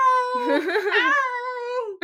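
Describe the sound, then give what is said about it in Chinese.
A person imitates a cat's meow with one long, high, wailing cry that wavers in the middle and slides down in pitch at the end, followed by a brief second yelp. “我觉得你真的很像猫，就濒死的状态，就他可能剩最后一口气啊。”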